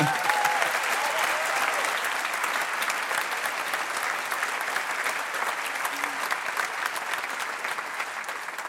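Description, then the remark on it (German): An audience at a Liebenzeller Mission farewell claps steadily and loudly, a dense, even wash of many hands that holds at the same level for several seconds without a break or voices on top. “Applaus!”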